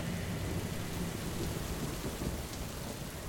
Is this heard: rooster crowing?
no